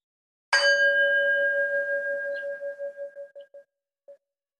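A single meditation bell is struck once, the first bell sounded in a guided session, its bright tone ringing out clearly and then slowly fading over several seconds, with a slight wavering pulse as it decays. No voices accompany it.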